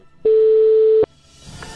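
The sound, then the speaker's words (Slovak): A single loud, steady telephone busy tone, heard when phoning a numerologist, sounds for just under a second, starting and stopping abruptly, then gives way to faint background noise with no one speaking. “Ten pr- e, prvý telefonát a ďalších 20 vyzeralo takto.”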